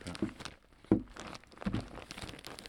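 A drill core being packed into a styrofoam box of ice cubes: crinkly rustling and crunching handling noises, with three sharper bumps among softer shuffling, and no voices.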